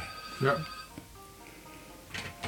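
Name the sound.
telephone ringing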